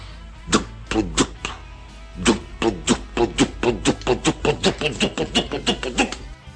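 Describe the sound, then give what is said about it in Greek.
Oil pumps at an oil well start up with a few heavy mechanical clunks, pause, then settle into a steady, quickening rhythm of loud thumping strokes with a low hum underneath. “Θα αρχίσουν οι αντιλίε να δουλεύουν”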